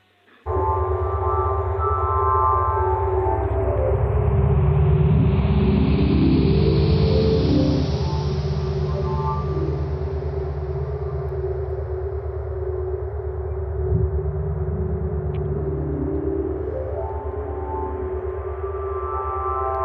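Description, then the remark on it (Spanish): A sonification of astrophysical data from the Chandra observatory, made by two astrophysicists and a musician, with brightness setting the volume: a loud, sustained electronic drone with layered humming tones and a rushing wash that swells and slowly shifts, with no voices, lasting about twenty seconds. “Entonces, lo que tenemos hoy, lo que los 40 segundos de, sonido, es una expresión sónica de este fenómeno tan chulo que un par de astrofísicos del Chandra, muy frikis y un músico, han hecho.”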